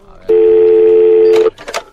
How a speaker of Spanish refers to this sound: Vamos a llamarle por teléfono a ver si se quiere pronunciar. no creo que diga nada, pero bueno, a ver. Vamos a intentarlo al menos.